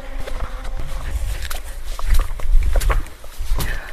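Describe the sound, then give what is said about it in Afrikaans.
Footsteps move along at an uneven pace as someone walks through a front door, each step a soft thud with scuffing and small clatters over a low, steady rumble. “Hier stap ons deur die voordeur waar niks waar bly jou ouers nou.”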